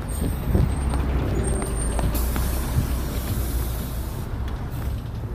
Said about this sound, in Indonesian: bentar aku naik bis dulu aduh